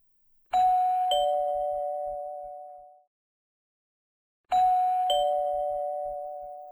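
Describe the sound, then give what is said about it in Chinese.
A doorbell at the village chief's house rings twice with a clear two-tone ding-dong, each chime sustaining and slowly fading, separated by a few seconds of silence. No one answers the door and no one speaks. “都没有人来应门呢。”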